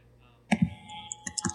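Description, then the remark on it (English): A short burst of computer keyboard typing, a few sharp clicks clustered in two quick groups after a moment of quiet, with no one speaking. “Matt, typing and stop.”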